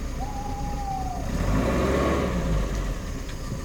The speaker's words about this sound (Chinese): 后来，艾摩斯爷爷接了我的月亮不见了的案子之后，就开着他的老爷车出门去了。